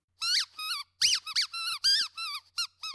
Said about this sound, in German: das Quietschspielzeug hin und her, woraufhin es die ulkigsten Laute von sich gab.